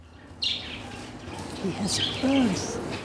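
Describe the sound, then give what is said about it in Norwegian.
Two green canaries in a small cage in a family home in the town of Karakors chirp in short, bright bursts, with a few higher twitters and some lower warbling notes scattered across a few seconds of steady indoor background. “I et lite bur kvitrer to grønne kanarifugler.”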